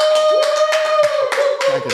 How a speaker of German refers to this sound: Man kann sich Publikum. einfach vorstellen, dass hier die äh, ganzen Sofas voll sitzen mit ja. Äh, einem riesigen Publikum. die gerade nicht sprechen können, ja. aber die könnten natürlich kurz mal einmal Applaus geben.